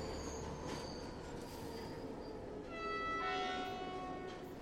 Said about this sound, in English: Scrubbed and polished by a team of cleaners, the train ran a regular route between Twickenham and Waterloo, stopping at 22 stations, including Richmond, Mortlake, Barnes, Wandsworth, and Clapham Junction.